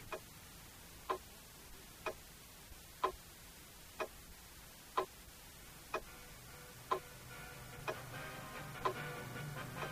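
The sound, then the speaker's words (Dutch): A clock ticks steadily, about one sharp tick per second, fairly quiet, with a faint hum rising in the background toward the end. No one speaks. “Die man is twee uur over tijd en de klok tikt maar door.”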